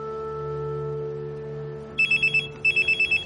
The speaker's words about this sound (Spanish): De día, en la habitación del hospital un móvil suena.